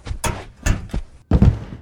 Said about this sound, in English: Close the door.